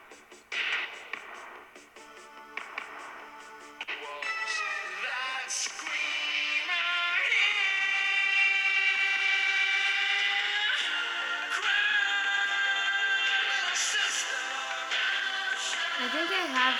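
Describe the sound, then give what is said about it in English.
A song from the soundtrack of the vampire film The Lost Boys plays with sustained, wavering melodic tones over a dense, tinny backing. It starts thin and broken for a few seconds, then swells into a steady, loud passage that holds to the end. “So you never heard this song?”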